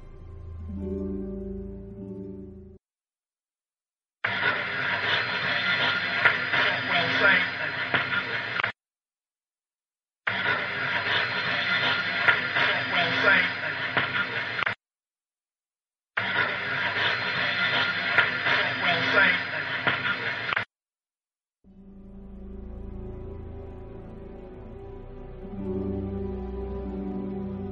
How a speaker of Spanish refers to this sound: cómo estas voces, esta psicofonía que acabamos de escuchar, We Side Dead, eh, cómo te están contestando en un idioma en el que no es el tuyo, o sea, no es tu idioma materno, no hablas este idioma.